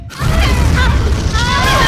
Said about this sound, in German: Mit einem Mal war der blaue Stein unter ihnen zerbrochen. Und seine Trümmer flogen in das neue Universum, das sich jenseits des Portals auftat.